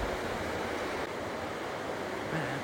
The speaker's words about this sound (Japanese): 今日も朝を迎えてですねロッキー山脈の麓の本当に綺麗な水の川のそばで皆さんにこのラジオをお届けしているので私の声よりもきっと水の音の方が大きく聞こえるのではないでしょうか